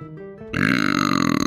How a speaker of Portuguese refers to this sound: Nossa, sabe, sabe aquele arroto que você dá de boca fechada e o nariz esquenta, foi esse. Sim, o gás sai pelo nariz, é uma beleza.